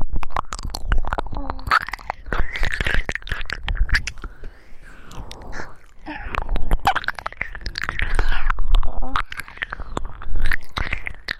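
Continuous wet mouth sounds of ASMR ear licking with saliva, going deep into the ear: dense smacking, clicking and slurping, moderately loud and uneven in rhythm, with soft breathy panting between bursts and no speech.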